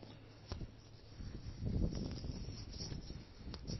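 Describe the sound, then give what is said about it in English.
Rustling and scraping with a few sharp clicks and taps as a phone used for recording is handled and adjusted, over a low rumbling background on a windy day, with no talking. “So uh, excuse me a moment when I do small adjustment.”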